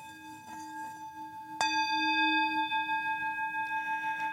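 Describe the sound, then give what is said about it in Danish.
A singing bowl, being demonstrated, rings out alone, already humming softly before one sharp strike makes it swell louder, then its bright, wavering tone sustains steadily to the end. “Og øh, vi har let meget efter noget lyd, og jeg vil lige demonstrere syngeskolen for jer.”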